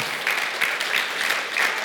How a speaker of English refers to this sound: Give him a hand clap of praise this evening.